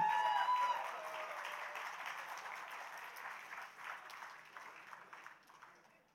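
A round of applause from a crowd, dense steady clapping that starts loud and gradually fades over several seconds, with no voices over it.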